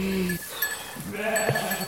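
Sheep bleat twice on an organic farm, a short call followed by a longer wavering one, loud and clear over a faint background of farmyard noise.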